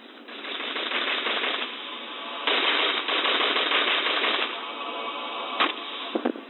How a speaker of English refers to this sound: Tweety, come down from that tree or I'll blast you with 9mm Uzi.